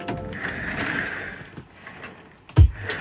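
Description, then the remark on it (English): Chair wheels roll across a hard floor with a steady, grinding rumble that fades after a second or so, then a single heavy thump lands near the end. No one speaks. “then you can hear him like wheeling his chair on the ground.”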